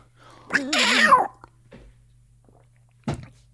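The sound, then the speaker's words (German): A person does a loud imitation of a cat's meow, a single drawn-out wavering call lasting under a second, followed by a short pause and a dull thump. “Nee, die Katze ist jetzt wieder runter vom Baum.”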